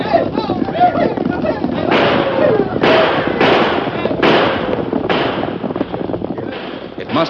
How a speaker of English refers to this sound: Suddenly, the deserted streets of Jericho echoed with the hoofbeats of many horses. There were wild shouts and the thunder of gunfire.